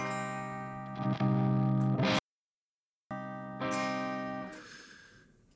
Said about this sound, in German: Also, Sounddesign übrigens mit der ist ja ganz viel über Gain. Ne, wenn ich hier mein Gain aufdrehe oder abdrehe, kriege ich ja einen ganz anderen Sound. Mehr, weniger Verzerrung. Und kann so fast mit demselben Preset clean spielen.